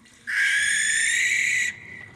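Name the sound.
barn owl screech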